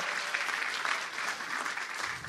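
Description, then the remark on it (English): A crowd applauds steadily, a dense wash of many hands clapping at an even, sustained level without pauses or voices standing out. “Put your hands together, cheer them, say amen, all those types of things.”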